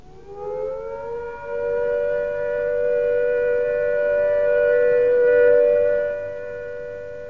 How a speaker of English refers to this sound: Stay under cover. When the all clear sounds, like this,